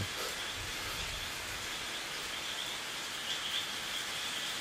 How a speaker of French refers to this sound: Ça a réveillé les grenouilles. C'est les grenouilles qu'on entend mm, Ouais. Ouais, on les entend peu encore. En soirée, on en entendra un petit peu plus.